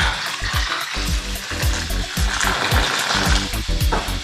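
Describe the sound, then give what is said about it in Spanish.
Water pours steadily into a glass with ice, ginger and fruit slices while making a drink, for a few seconds, a continuous splashing hiss broken by quick, repeated gurgles, with no one talking. “Y el agua.”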